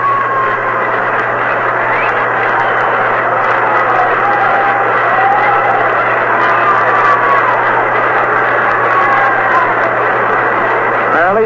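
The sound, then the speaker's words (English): A baseball stadium crowd applauds Early Wynn as he comes to bat against pitcher Jim Coates, in a steady, dense wash of clapping and cheering that holds at an even level throughout. It is heard through a thin, radio-like quality with a constant low hum underneath. “And here comes Early Wynn, and he'll get a fine round of applause.”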